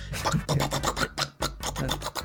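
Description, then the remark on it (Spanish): Long fingernails rapidly tap and clatter on a phone while typing, in a dense, scratchy flurry of clicks with one brief pause midway, as if hammering on the phone. No voices. “Escucha como si estuvieran martillando su teléfono, Cerote.”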